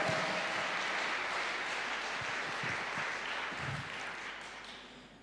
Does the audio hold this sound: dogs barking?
no